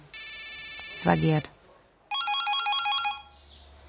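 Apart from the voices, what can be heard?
telephone ringing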